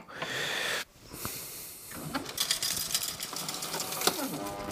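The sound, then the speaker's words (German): A steady hiss of steaming water from an espresso machine cooling flush, briefly cutting off, then returning with gurgling, sputtering bursts and mechanical clicks, moderately loud. “Also es gibt, äh, nee, Entschuldigung, ich habe ja einen Coolflash gerade gemacht. Es gibt dieses dampfende Geräusch”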